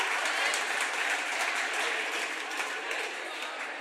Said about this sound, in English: I'm surprised some of you are even applauding because you're still chapped from some losing earlier, right?